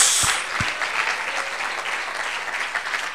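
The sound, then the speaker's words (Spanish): An audience claps steadily for the Lord in a dense, continuous wash of applause, with a couple of sharp low thumps near the start and no speech over it. “Démosle un buen aplauso al Señor todos, hermanos.”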